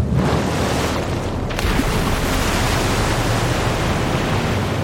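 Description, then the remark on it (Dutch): A humpback whale taking an enormous gulp, heard as a loud, steady rush of churning water that roars without a break for about five seconds, with a brief dip in the hiss near the start. “Zo de knetters, een bultrug. Die nam echt een enorme hap.”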